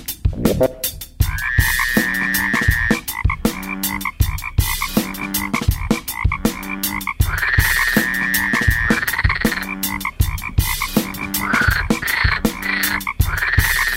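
Frogs croaking loudly and continuously, a dense chorus of rhythmic, pulsing calls repeating every few seconds with higher trilling notes overlaid, with no voices.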